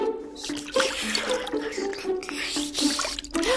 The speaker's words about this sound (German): Wir stehen hier im Watt. Das ist genau genommen Meeresboden, der bei Ebbe zum Vorschein kommt. Übrig bleiben dann nur ein paar Rinnsale und Pfützen mit Wasser. Und das läuft gerade in den Wigwam rein.